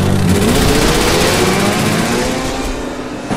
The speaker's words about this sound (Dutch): Worden dat prachtige zware motorgeluid wegsterven. Daar horen we hem remmen, want dan moet hij rechtsaf de Domineestraat in. Dan horen we hem optrekken. Prachtig geluid.